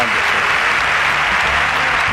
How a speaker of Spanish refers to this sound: Oye, hay que darle un aplausito también ¿eh?